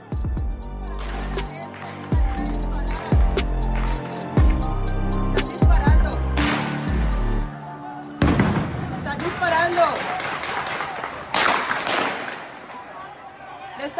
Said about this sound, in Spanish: disparando a todos los manifestantes. Esto es bala.